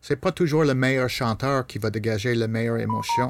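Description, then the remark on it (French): A person talks steadily during an interview while a pair of short, thin electronic beeps, notifications from a mobile phone, sounds quietly underneath near the end. “Euh, mon téléphone, mais j'avais enlevé mes notifications avant le début de l'entrevue.”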